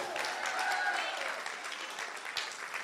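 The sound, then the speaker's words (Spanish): An audience applauds the Lord in a dense, steady wash of clapping, sustained throughout at a fairly even loudness, with faint voices and a brief tonal sound mixed in. “Vamos a dar un aplauso más fuerte al Señor.”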